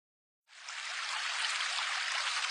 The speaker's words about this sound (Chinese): 红袋鼠。跑到一条小溪边